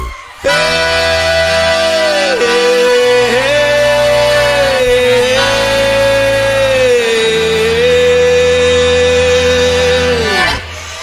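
A forró song plays loudly, with a sustained melodic lead, likely accordion, gliding between held notes over steady bass and harmonic backing, ending abruptly after about ten seconds. No one talks over it.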